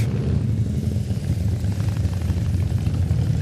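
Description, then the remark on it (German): Deep, throbbing rumble of many Harley motorcycles from Kassel idling and rolling past as they arrive, a steady loud low growl with a pulsing beat throughout and no voices. “Eieiei, die Motorradfahrer.”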